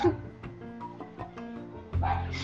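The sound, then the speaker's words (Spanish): A dog named Pepe barks several times at irregular intervals, the sharp yelps standing out over a murky background, with a louder burst of barking near the end. “Este, ese perro ya me tiene como loco. ¿Ustedes lo están escuchando?”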